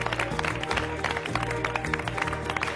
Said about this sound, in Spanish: ¡Mamma mía! Fantástico. Un aplauso.